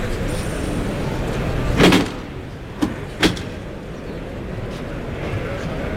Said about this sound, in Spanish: Vamos a escuchar ese cerrojazo.